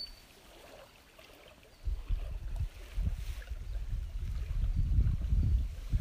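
Gentle water of Lake Shikaribetsu in Tokachi, Japan, laps in soft, irregular surges against an edge, with a low rumble of wind underneath. No one speaks.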